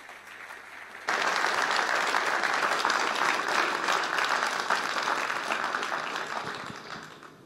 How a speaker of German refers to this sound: Dann lasst uns ihr einen großen Applaus geben.